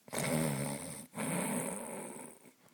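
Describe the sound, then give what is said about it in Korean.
A giant who has just fallen asleep snores in two long, loud, rumbling snores, one after the other with a brief pause between, deep and raspy, with no talking. “거인이 눈이 거인의 눈이 스르르 감기더니 금방 코 고는 소리가 들렸어.”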